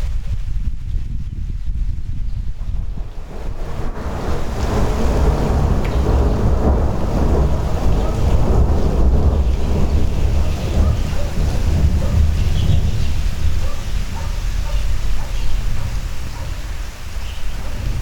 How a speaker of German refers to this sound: Ja, ein schönes Gewitterchen. Schönes Gewitter. Ja. Jetzt liege ich hier auf dem Bett und ja, Fenster sind auf.